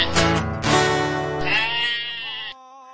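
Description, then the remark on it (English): Loud sheep bleating: a couple of wavering, nasal baas run together for about two and a half seconds before fading to a faint tail, with no talking. “Sheep, sheep, we love sheep.”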